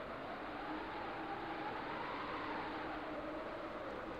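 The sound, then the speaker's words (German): Steady wind blows throughout at the start of a song, a broad, even whoosh with faint tones that slowly rise and fall, sustained at a constant level with no voices or other sounds. “Da weht noch der Wind.”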